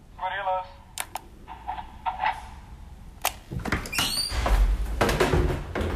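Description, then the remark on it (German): A short doorbell chime rings as a Gorillas grocery courier arrives in the morning, followed by a few sharp clicks and door sounds, then a long, loud crinkling rustle as a paper bag of groceries is handed over. “Das war ein Gorillas-Kurier, der heute Morgen bei mir geklingelt und mir eine Papiertüte mit meinem Einkauf übergeben hat.”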